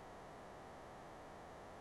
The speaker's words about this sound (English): I'm hearing a lot of static. All oh, no, it's gone now. Okay.